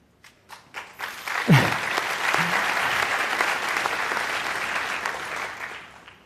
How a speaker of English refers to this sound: yeah, they deserve the applause.